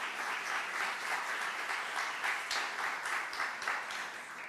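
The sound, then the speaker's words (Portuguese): A church audience applauds Jesus together, a steady, dense wash of many hands clapping that holds at a fairly even loudness for several seconds with no talking over it. “Aplauda Jesus agora.”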